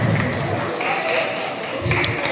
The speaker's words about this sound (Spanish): Siguiente tema y aplauden encima, hacen su, su tremendo y aplauden.